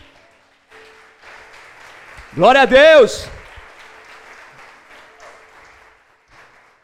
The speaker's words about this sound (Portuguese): Aleluia, aplauda Ele por isso.